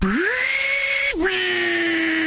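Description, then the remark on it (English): A table saw whines up to speed and bites into wood, its pitch dropping briefly as the blade cuts before settling into a steady loud drone. “Table saw.”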